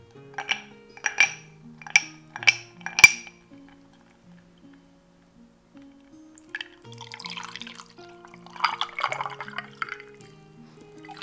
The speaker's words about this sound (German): Ich schenke mir erstmal einen Eistee in ein Glas rein mit ein paar Eiswürfeln drin. Vielleicht kann ich ein bisschen Eis mehr machen.